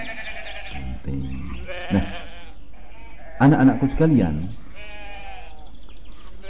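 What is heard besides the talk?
goat bleating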